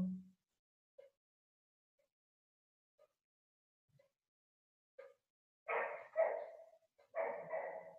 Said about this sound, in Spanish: Y el perro ladrando, a ver si también lo podemos aceptar. Es parte de la realidad ahora mismo. También pertenece en este momento.